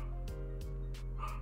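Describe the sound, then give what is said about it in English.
A dog barks in a quick series of about four sharp yips over a steady low hum in the background. “I'm sorry if you can hear some barking”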